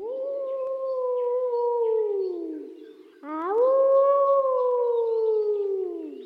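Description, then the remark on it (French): A wolf howls twice in the distance, each long, mournful call sliding slowly downward in pitch, with the second rising sharply before tapering off. The howls are sustained and clear, with no voices present. “Au loin, un hurlement retentit.”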